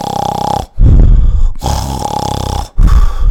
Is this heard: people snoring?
yes